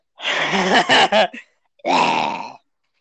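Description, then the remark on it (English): A person makes two drawn-out, guttural groaning noises, like a moaning Minecraft zombie, the first wavering and broken, the second a steady low moan after a short pause. “I sound like a Minecraft zombie zombie when I make that noise”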